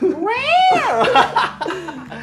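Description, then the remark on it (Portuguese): A person's voice imitates Godzilla's roar as one long screeching cry that rises and then falls, loud, trailing off into brief laughter and chatter. “Quando ele só ouve, como é o, como é o berro do.”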